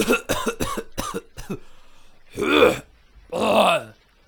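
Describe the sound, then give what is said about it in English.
A loud coughing fit: a quick run of five or six harsh hacks, a short pause, then two longer, raspy, strained coughs with a rough, croaking edge. “I've always had that cough.”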